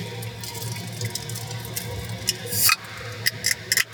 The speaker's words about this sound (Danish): Så kan jeg lige åbne den her Pepsi.